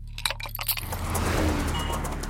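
car passing by

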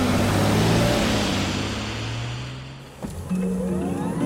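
combustion car engine revving

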